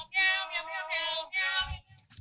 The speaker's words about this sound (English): and then it doesn't stop until the battery dies three hours later. You cannot shut off the sound of the meows.